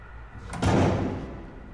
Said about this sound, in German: Er liebte diese Tür, deren Klang jenseits aller akustischer Gesetzmäßigkeiten um so viel größer war als sie selbst.